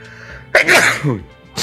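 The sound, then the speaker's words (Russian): A loud sneeze bursts out with a sharp explosive onset and a brief breathy tail, followed moments later by another short nasal burst. “Обратно будь здоров.”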